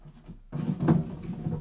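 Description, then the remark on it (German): After a brief hush, the second-lowest drawer of a wooden desk slides open with a rumbling scrape lasting about a second, swelling midway then easing off. No one speaks. “Sie war leer. Auffällig aber war, dass der Einbrecher, der sie aufgebrochen hatte, sorgsam ein abgesplittertes Stück Holz wieder eingesetzt hatte.”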